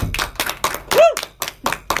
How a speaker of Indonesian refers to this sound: Tepuk tangan dong semuanya.